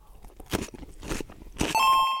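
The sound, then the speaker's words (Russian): Three loud, crisp crunches as someone bites into a cucumber, evenly spaced about half a second apart, followed by a steady high-pitched electronic beep tone that holds to the end. “Извини, я ем огурец. Очень хороший огурец, кстати.”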